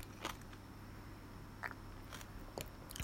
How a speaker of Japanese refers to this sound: ちょっとこういう日は飲もうっていうアドバイスを素直に聞き入れて、今、チャミスルのすももを飲みながら、咀嚼音が入ります。